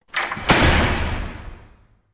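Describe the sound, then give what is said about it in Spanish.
A door slams shut hard, one heavy bang preceded by a brief rattle, with a ringing, echoing tail that fades over about a second and a half. “Tú aprietas la mandíbula, azotas la puerta.”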